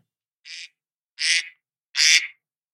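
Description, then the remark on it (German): Three nasal duck quacks from the classic phone alarm tone called Ente (duck), each one longer and louder than the last, separated by short silences, with no talking. “Und dann unter, unter Classic. Alarm. Ja. Ente.”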